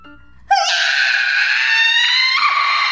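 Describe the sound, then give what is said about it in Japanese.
A sudden, piercing scream bursts out after a brief low murmur and holds loud and shrill for about two and a half seconds, its harsh high pitch wavering slightly before dipping near the end. “色気もためらいも恥じらいもない、性別すら疑いたくなるような凄まじい声を聞いて、おいおい、なんちゅう声上げるんだよ。”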